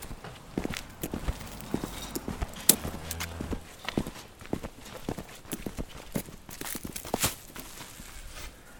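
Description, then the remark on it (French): Inside a farm barn, hooves clatter and stamp on a hard floor as hungry heifers wait to be fed, and partway through one heifer lets out a short, low bellow among the restless shuffling and knocks. “Bah, vous les entendez, ils râlent dès qu'ils râlent, c'est qu'ils ont faim, quoi.”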